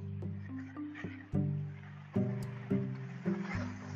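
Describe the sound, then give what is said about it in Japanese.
Gusty wind by the sea buffets the microphone, producing low rumbling thumps and sudden bursts of noise every second or so, with a steady humming tone underneath. “ちょっとごめんね、風とかうるさくて。”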